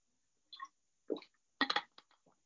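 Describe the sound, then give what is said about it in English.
A few quiet sips and gulps of water, with soft wet swallowing sounds and a brief clink between them, and no talking. “Another drink of water.”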